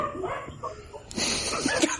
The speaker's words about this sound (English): Can you guys hear my dog barking? Are we getting your dog riled up?